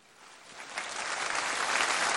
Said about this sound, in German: Auch dieser Abschnitt wieder Applaus.